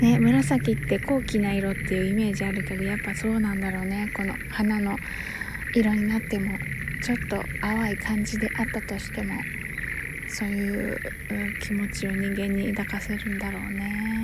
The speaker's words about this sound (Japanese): すごいねカエル鳴いてるの聞こえるかなすんごい泣いてる